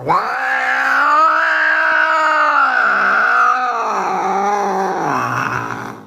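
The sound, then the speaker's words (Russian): A locked-up cat yowls at night in one long, continuous, wavering cry lasting several seconds, loud, its pitch bending up and down with a throaty growling edge and no other sounds. “Теперь по ночам до него все чаще стали доноситься непонятные тирады запертого кота.”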